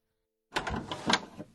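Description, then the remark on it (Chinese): A door opens as someone comes into the room after a moment of silence: a brief mechanical rattle and creak lasting about a second, moderately loud, with no voices. “毕婉晴刚说完话，叶世祖开门进来了。”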